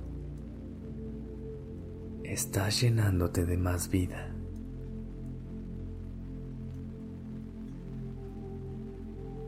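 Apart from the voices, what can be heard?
rain falling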